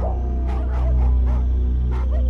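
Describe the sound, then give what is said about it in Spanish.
Dogs bark in a quick, irregular series of about five sharp yelps and bow-wows, moderately loud, over a constant low droning hum in the background. “Dice que en cuanto lo vieron, todos los perros se lanzaron corriendo hacia él en modo de ataque se asustó porque pensó que lo iban a morder.”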